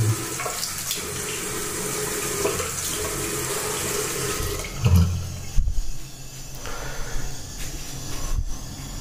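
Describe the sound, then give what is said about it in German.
Steady running tap water pours into a sink for several seconds while hands wash beneath it, with a few louder splashes and clunks near the middle before the flow continues more quietly. “Ups, Ein bisschen waschen.”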